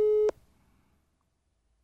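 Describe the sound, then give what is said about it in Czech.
A telephone ringing tone sounds once as a short, steady electronic beep, loud, then cuts off into near silence while the call waits to be answered. “Přímo potvrdit, teď záleží, jestli to vezme.”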